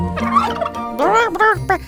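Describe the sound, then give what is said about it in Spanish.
Turkeys gobble and cackle in a loud burst of warbling calls, several rapid rising and falling notes overlapping, with a brief pause before a second flurry. “¿A cuánto la vara? Crasnaron todos los gansos, pero la cigüeña hizo como si no los oyera.”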